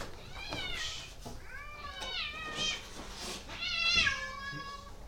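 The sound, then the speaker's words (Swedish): Several cats meow over one another outside in a continuous, overlapping chorus of drawn-out, wavering cries, moderately loud and carrying on for the whole stretch with no one speaking. “Hur många katter har du där ute?”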